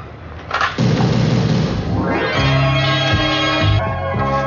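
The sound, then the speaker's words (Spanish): A car engine, heard from inside the car, cranks and catches at about 0.7 seconds, then settles into a loud, steady rumble with a low harmonic hum that rises slightly in pitch as it revs before idling on. “En el interior del coche.”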